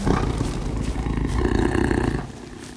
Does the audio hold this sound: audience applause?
no